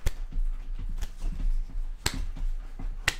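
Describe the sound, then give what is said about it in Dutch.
Four slow, sharp hand claps land about a second apart, stiff and awkward rather than a flowing applause, over a low murmuring background, imitating Bill Gates clapping like a nerd in a video announcing Microsoft. “Als een nerd. Te klappen.”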